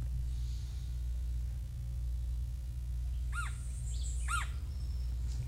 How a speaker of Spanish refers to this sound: Este, estamos escuchando el pájaro carpintero de Puerto Rico.